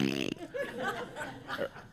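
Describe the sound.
A voice blows a short, buzzy raspberry imitating a fart, followed by scattered laughter and chuckling that continues for a couple of seconds.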